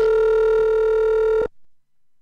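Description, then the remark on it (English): A single steady, buzzing telephone ringback tone, like an outgoing call ringing on the other end, sounds for about a second and a half and then cuts off into silence. “Damn, he ain't gonna pick up.”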